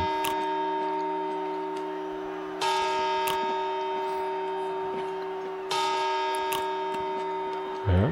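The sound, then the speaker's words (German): A clock bell tolls slowly, striking the midnight chimes on New Year's Eve, with two loud strikes about three seconds apart over a long, humming resonance that keeps ringing between them. No one speaks. “Man merkt, es ist deutlich langsamer als ein eigentlicher Schlag.”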